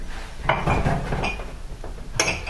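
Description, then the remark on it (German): Drinking glasses and cups clink and knock together as they are handled while a vessel is chosen, a few bright, ringing taps at irregular moments over a low background rumble, with no one speaking. “Also wir haben hier verschiedene Gläser und Tassen.”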